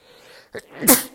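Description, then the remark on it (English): A single loud sneeze from hay fever after grass mowing: a brief sharp intake of breath, then an explosive burst with a bright, hissing spray that trails off quickly. No one talks. “Oh, excuse me, that was a sneeze.”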